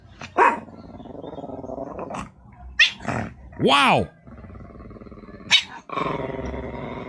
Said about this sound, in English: Holy cow. Uh. That's a barking cat.